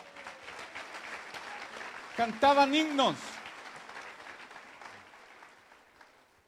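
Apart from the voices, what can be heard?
audience applause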